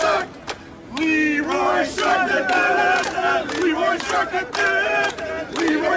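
A large crowd chants City players' names, such as "Silva", loudly in unison, holding long sung notes, while sharp claps cut through at a steady rhythm between the phrases.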